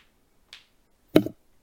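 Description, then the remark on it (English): Two sharp knuckle cracks: a faint small pop, then a louder, fuller crack about half a second later, with silence around them and no talking. “I'm so sorry if anyone can hear me cracking my knuckles.”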